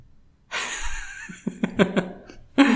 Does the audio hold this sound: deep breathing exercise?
yes